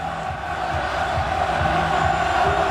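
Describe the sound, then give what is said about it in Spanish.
A large stadium crowd of football fans roars in a sustained ovation for Gala Ceballos during a player presentation, a dense, loud wash of cheering and applause that holds steady and swells slightly toward the end. “Fijaos, ahí estaba Sergio Ramos, estaba por supuesto José María Gutiérrez Guti, ovación de Gala Ceballos.”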